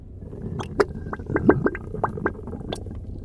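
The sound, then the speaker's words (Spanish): A low, bubbling gurgle with an irregular run of wet pops and bursts over a murky rumbling base, sounding faint and faintly menacing, like a throaty growl from somewhere unseen. “Un débil y siniestro. ¿Borboteo? ¿Gruñido?”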